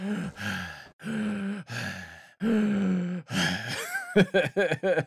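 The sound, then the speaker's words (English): A voice performs a series of heavy, drawn-out breaths and sighs, loud, then breaks into a quick run of short, panting gasps near the end. “This, you know, four four story tall man just just breathing like like he's a fat guy who tried to chase after the the ice cream truck a little too vigorously.”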